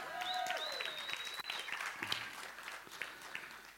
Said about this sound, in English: Uh, come and give them a round of applause, you know.